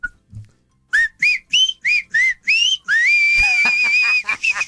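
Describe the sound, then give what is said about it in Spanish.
A person whistles a short, bright tune: five quick rising chirps in a row, then a longer sustained note with a wavering bend, ending in a few soft trailing sounds. “¿Cómo suena el, el chiflidito?”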